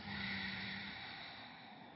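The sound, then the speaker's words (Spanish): A long, deep, airy breath drawn in and exhaled during a guided breathing exercise, a steady hiss that slowly fades, with no talking. “Y, y tomas una respiración profunda, a ver, respiremos. Exhalemos.”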